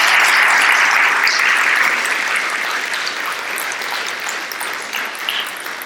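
Sustained applause from a church audience for the unseen church helpers, a dense crackle of many hands clapping steadily for about six seconds, loud at first and easing slightly toward the end, with no voices over it.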